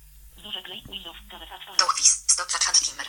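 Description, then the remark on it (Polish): A short burst of speech gives way to a bright, warbling electronic phone ringtone, a phone being called from a second phone, that pulses loudly in quick repeated bursts until the end. “Na, użytek tego podcastu zadzwoniłem do siebie, z jednego telefonu, do drugiego.”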